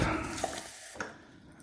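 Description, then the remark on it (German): Water trickles and splashes as it is poured into a cup to measure one and a half cups (about 380 ml) for flatbread dough, a steady hiss that slowly thins out, with two small clinks against the vessel partway through. No one speaks. “Was jetzt auch noch ein guter Trick ist, um diese Teigfladen zuzubereiten, ist, da kommen jetzt anderthalb Tassen Wasser drauf. Ich messe das mal gerade ab und übersetze es dann wieder in anderthalb.”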